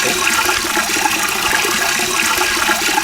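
Water from a fire hydrant gushes in a steady, loud rush, with a hissing spray that stays constant for the whole stretch, with no voices; an obstacle sound in a game.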